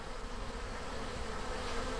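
A steady, close-up drone of honeybees buzzing, a dense continuous hum that fills the whole stretch with no pauses and no voices.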